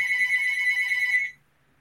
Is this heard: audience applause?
no